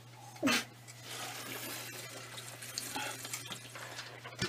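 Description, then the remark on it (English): Someone drinks water, a sharp splashy burst at the start giving way to steady slurping, gulping liquid noise over a low constant hum, with no talking. “get your water.”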